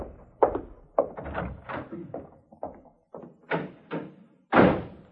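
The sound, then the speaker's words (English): A heavy jail cell door swings and clangs shut, with a sharp slam followed by several more clanking thuds and rattles over a few seconds, fairly loud. “You, me bucko, go through that door and pick out a cell for yourself.”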